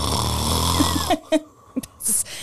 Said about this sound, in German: Also wir haben einmal das Thema Schnarchen heute mitgebracht